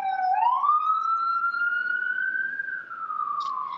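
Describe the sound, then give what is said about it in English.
A loud wailing siren of a passing emergency vehicle holds a long rising then slowly falling tone, steady, with a faint hum of traffic underneath and no talking. “sorry i'm gonna let the siren go by”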